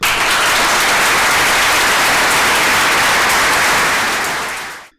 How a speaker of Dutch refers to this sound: het applaus was zo daverend dat heel de audio-opname om zeep was